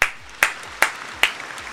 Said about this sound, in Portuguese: Palmas para ele. Palmas para ele.